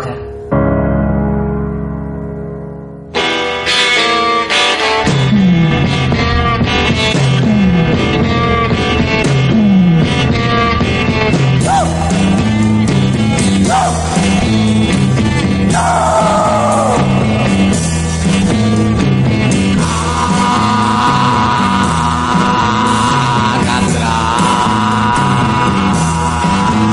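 A raw early punk song by a Peruvian band, with men shouting over it, bursting in after a quiet opening few seconds, then driving loud and steady with pounding drums and distorted guitars throughout.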